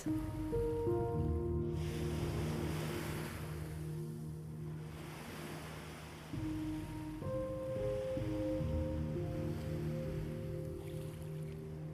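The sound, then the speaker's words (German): Soft ocean waves surge and wash in slow swells, blended with a steady, sustained ambient musical drone; no one speaks. “Jede Welle schenkt dir ein Gefühl von Freiheit und Lebendigkeit.”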